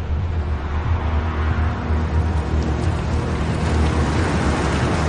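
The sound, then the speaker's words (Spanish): A police patrol car's engine rumbles steadily with a deep, continuous low drone and broad road noise as it drives out of a mechanic's workshop, holding an even loudness throughout, with no voices. “El coche de policía abandona el taller.”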